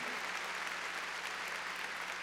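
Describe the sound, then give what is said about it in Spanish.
Steady applause from an audience clapping for the Lord, many hands clapping together in a dense, continuous wash of sound that holds at an even level for the whole stretch, with no voices heard. “A ver, démosle palmas fuertes ahí a nuestro Señor.”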